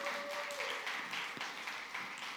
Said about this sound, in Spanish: Iglesia, les damos una bienvenida en esta mañana. Un fuerte aplauso para ellos.